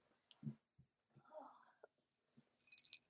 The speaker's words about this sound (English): Can you hear his bells? This is my giant black cat